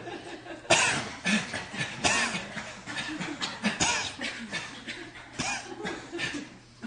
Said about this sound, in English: Okay, do you feel when you exhale and you cough how something in your pelvic floor goes, comes together? Yes? No?